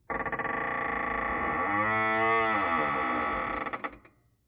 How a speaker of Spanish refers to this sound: Me jode mucho cerrar la puerta. Oye, oye, cómo se cierra la puerta, ¿ves?